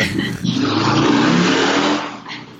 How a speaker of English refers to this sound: there goes motorcycles